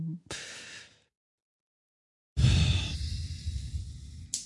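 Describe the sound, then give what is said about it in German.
Heavy huffing breaths: a short puff, a pause of over a second, then a long, loud, drawn-out exhale through the nose and mouth. No one speaks. “du schnaufst, als würdest du es kennen.”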